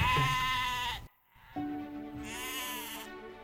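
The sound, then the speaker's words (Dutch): Sheep bleat loudly, two long wavering calls separated by a brief pause, with other flock sounds faintly underneath; no one speaks. “Bij schapen, dat zijn alleen maar ooien in zo'n kudde.”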